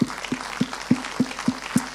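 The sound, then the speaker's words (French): Applause from an audience in a cinema, clapping for the cinema and its film projection equipment, heard as a steady, evenly spaced run of about seven sharp hand claps over two seconds, moderately loud, with no talking. “Vraiment, on peut les applaudir.”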